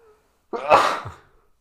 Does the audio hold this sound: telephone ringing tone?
no